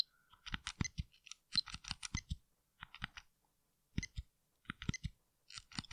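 Rapid clicking and tapping on the keyboard of a new company computer with an LCD display, coming in short uneven bursts separated by brief pauses. The clicks are quiet and sharp, with no voices.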